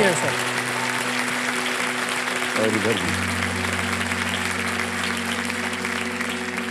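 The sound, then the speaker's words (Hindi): Steady applause from a studio audience for Khan Sir's former students, who stand up in their places, fills the whole stretch, a dense even patter of many hands, while a voice with a sustained tonal quality speaks briefly over it. “तो मैं यहाँ की जनता से पूछना चाह रहा हूँ कि खान सर के जितने भी स्टूडेंट्स रहे हैं वो अपना हाथ ऊपर करें इधर थे सब आप लोग अपनी जगह पे खड़े हो जाइए तालियां बज जाए इनके लिए थैंक यू थैंक यू”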